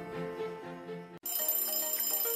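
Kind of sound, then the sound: signal or alarm, alarm ringing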